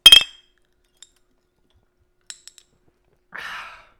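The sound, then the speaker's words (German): A bright glass clink rings out at the start as glasses are clinked in a toast, followed by a few faint ticks and then a soft breathy exhale; no one speaks. “Prost.”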